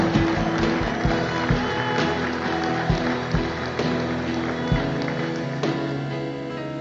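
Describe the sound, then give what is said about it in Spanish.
An audience applauding, a dense, steady wash of clapping that lasts the whole stretch, with regular heavier thumps pulsing underneath. No one speaks. “No, si le va a aplaudir, hágalo bien, si no, no lo haga.”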